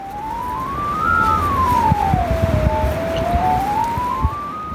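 A single steady electronic tone from Kamasya, a smartphone-camera navigation aid that translates the camera image into sounds for blind people, glides slowly up, down and back up in pitch, like a soft siren, over a low rumbling background with scattered faint clicks.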